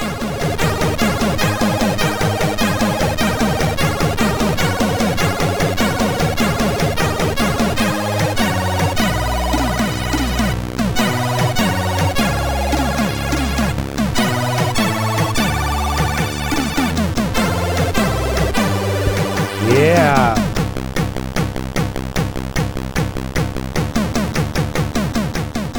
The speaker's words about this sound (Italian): ricordiamo ai digiuni che il Commodore 64 ha, o meglio il SID, il chip audio del Commodore 64 ha tre canali e basta. Tutta sta roba sta in tre canali.